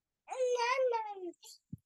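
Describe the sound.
A young child babbles a drawn-out, sing-song greeting, saying "coucou" (hello), the high voice sliding downward, followed by a couple of brief soft sounds.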